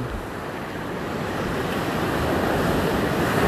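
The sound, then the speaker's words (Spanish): Ocean waves surge and break on a beach in a steady, broad wash of noise that swells slightly louder toward the end, with no voices present. “la encadenan a una roca en la playa, así como escuchan ahora el, oleaje.”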